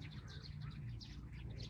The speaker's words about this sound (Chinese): 喜鹊使劲的叫。